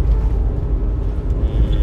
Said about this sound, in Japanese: えーと、今日は、えーと、今車で、えー、自宅に帰っているところではあるんですけども